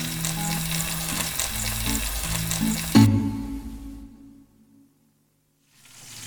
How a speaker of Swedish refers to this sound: Nu har du fräst ganska duktigt här i eh, åtskilliga minuter. Ja. Och de här, eh, dina bussiga oxsvansar har ändrat färg. Ja. De är nu gyllenbruna på alla eh, kanter och ledder och håll.